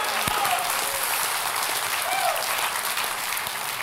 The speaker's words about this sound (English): And as a result of it, God is doing amazing things through Anchor Church. So if you would, uh, give your pastors a hand clap.